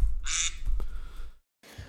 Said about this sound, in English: And that's my quack.